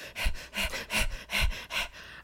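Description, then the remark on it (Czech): A person imitates an animal in a car hyperventilating like a panting dog, with about five quick, breathy huffs in a steady rhythm, each a loud burst of hissing air, with no talking. “Takhle tam byl těma drápama úplně za to a takhle jako hyperventiloval, jak pes prostě dělal.”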